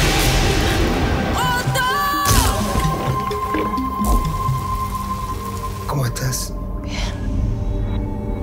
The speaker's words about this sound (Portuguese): eu aproveitei e fui fechar a última janela, que a tempestade estava brava, nada de raio ainda, mas, cara, tava entrando uma água na janela aqui. Eu falei, deixa eu dar uma fechadinha.